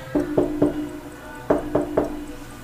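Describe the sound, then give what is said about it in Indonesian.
Two quick sets of three sharp knocks on window glass, each tap bright and ringing briefly, fairly loud, with a short pause between the groups. “tiba-tiba ada yang ngetok kaca jendelaku jelas banget itu ini”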